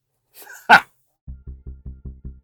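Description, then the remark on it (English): A dog gives one loud, sharp bark, then a quick, evenly spaced run of seven low, muffled huffs, with no one talking. “the dog is real, by the way, although there is a Lego version of him too.”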